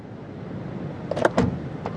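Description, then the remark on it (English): A minibus rumbles low and steady as it pulls into a firm's car park, with a few short mechanical clunks and clicks toward the end; no one speaks. “After about half an hour, the minibus pulls into the firm's car park.”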